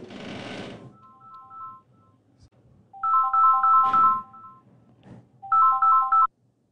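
A phone's electronic ringtone plays a bright, beeping melody in two loud bursts, preceded by a faint snippet, with a short rustling thump at the start and no talking.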